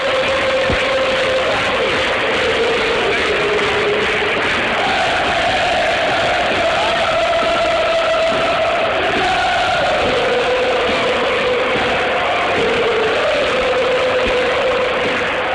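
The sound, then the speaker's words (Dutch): A large stadium crowd of football supporters at the Utrecht–Herenveen match chants in unison, a loud sustained sing-song chorus rising and falling over a dense roar of massed voices, continuous throughout. “wat heb jij geprobeerd om de spreekoren te verbeteren?”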